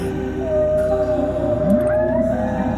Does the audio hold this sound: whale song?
yes